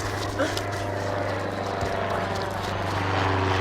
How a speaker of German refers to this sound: Die Cessna 172 Skyhawk kam immer näher. Sie war wieder in den Tiefflug übergegangen und fegte über das Feld hinweg. Flughöhe 1,50 Meter.